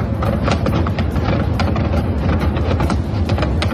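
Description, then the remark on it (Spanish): A loud, continuous barrage of missile explosions striking Kherson, Ukraine, blasts and sharp cracks piling up in rapid succession over a deep, steady rumble, with no voices. “Una lluvia de misiles como la que este martes ha caído sobre Gerson y que ha dejado al menos seis muertos, seis personas que estaban esperando el autobús cuando han empezado a caer las bombas.”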